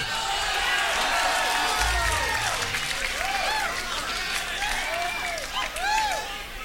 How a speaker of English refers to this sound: I know I could have cut out, you know, that last minute and a half of applause and … talking, but a I wanted to catch capture the the um, atmosphere of the room, because it is a small club where you could actually yell and be heard